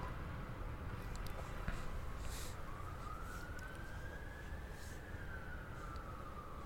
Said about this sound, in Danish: Venter lige på øhm, ambulancen her.